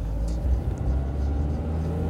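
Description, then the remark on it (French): A car engine runs steadily, a deep continuous rumble with a faint whir on top, holding an even level throughout. “C'est ma voiture à moi.”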